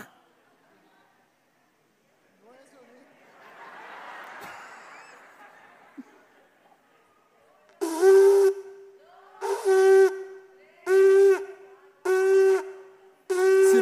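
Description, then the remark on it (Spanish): Five short shofar blasts of the teruah call sound in a steady rhythm, each a loud, brassy, buzzing horn note with a slight upward bend at the start, following a stretch of soft breathy hiss. “Y es el teruaj. ¿Sabe cuál es el teruaj? Son nueve sonidos cortos.”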